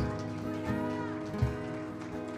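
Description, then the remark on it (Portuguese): An audience applauds the Lord during a church worship service in a steady, dense crackle of clapping that holds for a couple of seconds, layered over sustained musical tones and a faint voice. “A ah, glória a Deus, aplauda o Senhor.”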